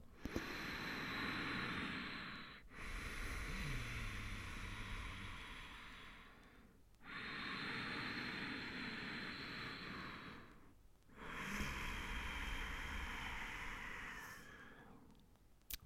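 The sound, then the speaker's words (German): Four long, even ujjayi breaths as practised in yoga, drawn in and out through the nose with a slightly constricted throat, each a steady ocean-like hiss lasting several seconds, with brief pauses between inhale and exhale. No talking. “Das ist, wenn du deine Kehle so leicht verengst, durch die Nase einschnaufst und ausschnaufst und es tönt dann etwas so.”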